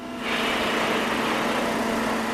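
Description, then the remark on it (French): A hydraulic hammer operated by a young worker breaks into a rock wall in a mine, digging an exploratory gallery. Its loud, heavy mechanical roar kicks in after a brief moment and holds steady with a deep, droning hum and no voices. “Aux commandes d'un marteau hydraulique, un jeune ouvrier s'attaque à un mur de roche.”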